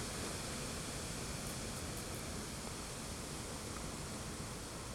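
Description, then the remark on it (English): Light wind sweeps through a thousand leaves rubbing against each other, making a steady, dense rustling hiss that holds evenly throughout without pauses or voices, soft and continuous like surf. “That's just the sound of a thousand leaves rubbing against each other when the wind blows.”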